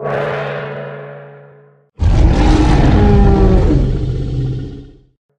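A dragon roar sound effect for a serpent-like, hundred-headed dragon that guards a golden-apple tree: a deep, monstrous roar rises from a lower rumbling growl, then bursts into a loud, sustained bellow with harsh, gritty texture before fading out, with no talking.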